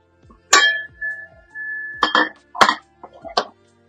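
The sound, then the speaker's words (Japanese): A water-repellent coated metal pan clinks and clatters, four or five sharp knocks spread over a few seconds, the first leaving a brief ringing tone, with no voices. “この撥水加工の鍋って本当にいいな。”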